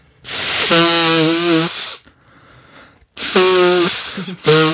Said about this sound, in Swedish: Ah, men fan vad du ska snyta dig. Vet du vad, jag ska sampla det där och göra en låt av det.